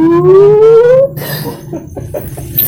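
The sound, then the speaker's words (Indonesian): A voice imitates the long slide down a snake near the finish, around square 98, in a game of snakes and ladders: one loud sustained tone gliding steadily for about a second, then breaking off into soft laughter and scattered rustling noises. “humasnya paling panjang ya biasanya kalau ada teman yang dapat ular di nomor itu wah langsung dijadiin backsound”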